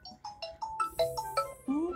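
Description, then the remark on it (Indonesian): A phone ringtone plays a quick, bouncy melody of short electronic beeps at a steady pace, fairly loud, with a brief voice-like sound near the end. “minum telepon tadi dulu beb”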